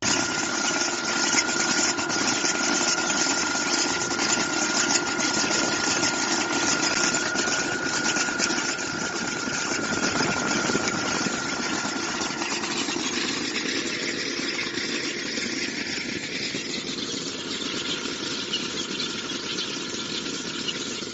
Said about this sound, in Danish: Så er der en video med en øh, lugerobot, som du sætter på traktoren. Øh, så du skal stadig sidde og køre i traktoren, men til gengæld kan den med kamerateknik se roerne, og så kan den lue ind imellem rækkerne.